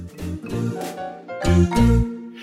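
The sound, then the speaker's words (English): A bright electronic LifePing notification chime plays a quick sequence of about four sustained tones, fairly loud, with no voices. “you heard the ping and so you must be alive”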